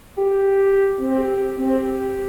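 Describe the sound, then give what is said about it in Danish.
A woman's phone ringtone plays loud: a sustained electronic tone joined by lower notes that shift in a simple melody, with no voices over it. “Kort efter ringer hendes telefon, som lyder sådan her.”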